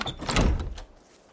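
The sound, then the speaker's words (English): A door is pushed open and swung shut with a solid thud partway through, leaving a brief rattle that fades quickly into quiet. No one speaks. “and then walks out the door.”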